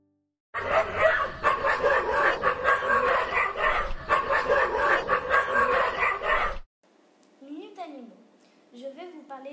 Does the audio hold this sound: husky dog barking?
yes